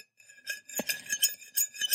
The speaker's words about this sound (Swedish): Sen var det en gaffel mot tallrik också. Men den kan jag dra också.